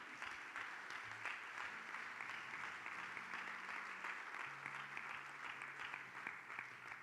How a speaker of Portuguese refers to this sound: Quer aplaudir o Senhor? Aplaude com fé, meu irmão.